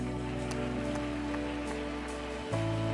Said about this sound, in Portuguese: Quem crê nisso, aplauda bem forte o Senhor.